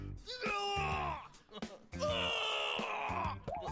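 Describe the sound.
A voice lets out two long, loud, strained screams in quick succession, each held for over a second with a brief gasp between, imitating the piercing yell of a father in a supermarket.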